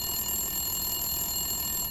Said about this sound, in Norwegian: De blir avbrutt av telefonen.